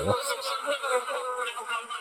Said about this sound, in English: And I'm finishing with wasps.